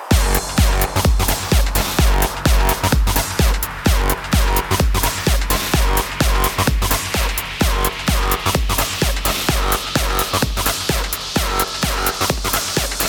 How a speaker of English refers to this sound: Okay. Now, we need some fat distortion. 100 more distortion. Time for another fat ass drop.